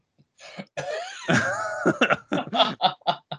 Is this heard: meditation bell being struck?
no